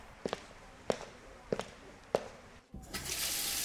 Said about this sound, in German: Aber durchspülen müssen wir trotzdem. Dann spül mal durch,